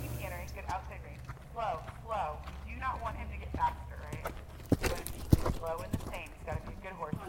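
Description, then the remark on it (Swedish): Horse hooves clip-clop on the ground in a paddock during a jumping session while people talk over them, with a few sharper, louder hoof thuds standing out partway through. “Idag är det hoppning i en av paddockarna Instruktören är trygg och peppande och hon pratar konstant.”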